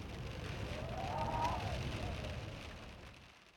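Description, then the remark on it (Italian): Steady rain hisses over a low, gusting cold wind rumble outside Marconi's hut on the Newfoundland peninsula, Canada, shaking the balloons and kites holding up a 180-metre antenna wire, with a faint whistle swelling and fading midway before the whole wash of weather drops away at the end. “Fuori il tempo è pessimo. Pioggia e vento freddo scuotono i palloni e gli aquiloni che reggono un filo di antenna di 180 metri.”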